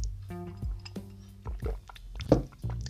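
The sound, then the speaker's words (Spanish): Quiet liquid sounds, like water being poured or sipped, with a few short wet bursts and squishy gulps spread across a few seconds, no talking. “Perdón, fui por agua.”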